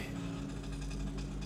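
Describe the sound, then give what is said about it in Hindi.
An auto-rickshaw's small engine drones steadily as it approaches from behind a man walking at night, a low, continuous putter with a slight rattle, holding an even level for the short moment with no voices. “उसने पीछे एक आते हुए ऑटो की आवाज सुनी”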